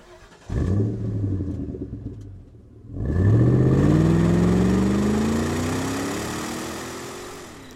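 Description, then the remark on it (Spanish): The engine of a stolen Toyota car cranks and catches, idles briefly, then revs up and pulls away toward Glendale, its pitch rising steadily as it accelerates. It is loud, with no talking. “Encontró el auto, lo encendió y partió hacia Glendale.”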